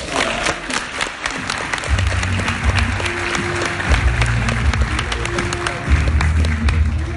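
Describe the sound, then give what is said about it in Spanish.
An audience applauds steadily, dense overlapping claps filling the whole stretch at a fairly loud, even level, with a low sustained hum running beneath. “Estás en el lugar correcto, date un aplauso, por”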